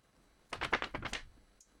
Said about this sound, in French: Le bruit de la feuille.